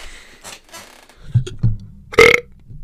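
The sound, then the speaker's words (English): A squeaky chair creaks in a few short bursts: low groaning creaks first, then a louder, sharper squeak with a thin high whine near the end. No one speaks. “We got that squeaky chair.”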